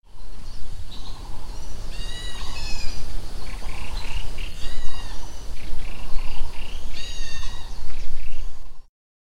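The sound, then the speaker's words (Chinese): Outdoor countryside soundscape recorded in the Shang'an community in Shuili, Nantou: insects buzzing and chirring continuously, while birds call in short bursts of bright, high, rising chirps at irregular moments over a steady noisy background. “好，刚刚听过了短短的一段虫鸣鸟叫声。”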